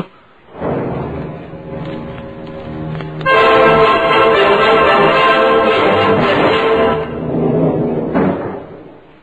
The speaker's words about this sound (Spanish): Cierra la puerta y entra Pedro Sanzón